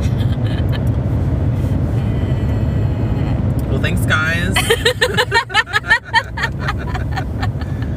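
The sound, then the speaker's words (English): A steady, low rumble of road noise inside a moving car on the drive home runs through the whole stretch, while a person talks and laughs over it. “thanks for being in, in the car with me.”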